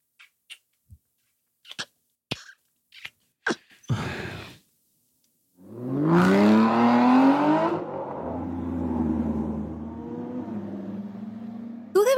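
A few sharp clicks and thuds, like a car door, then an engine revs up, holds a steady rumble and fades out as the car pulls away. No one speaks.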